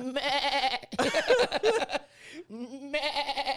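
A sheep- or goat-like bleat rings out loud, followed by a burst of wavering, laugh-like vocal sounds, then a second long, quavering bleat closes it out.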